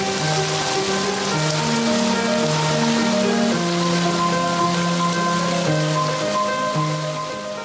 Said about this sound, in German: wenn man das so hört. Das Wasser das, so laut ist.